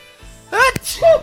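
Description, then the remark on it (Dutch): A single loud sneeze: a voiced, rising intake breaks into a sharp burst of breath, followed by a short trailing vocal sound. “Gezondheid.”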